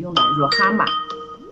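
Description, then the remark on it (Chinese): A phone rings under a person's speech during a live stream, its bright, steady electronic tones sounding through the talking, and a short surprised exclamation follows. “对不起，我接个电话，肯定是有人在找我。”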